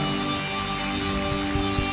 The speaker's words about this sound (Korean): 우리를 사랑하시는 만큼 주님께 영광과 감사의 박수 올려드립시다.